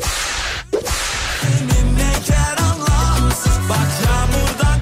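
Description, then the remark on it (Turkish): A single sharp whip crack snaps out loudly after a burst of noise, followed by rhythmic music with a thumping bass beat. “Açıksa kırbaç.”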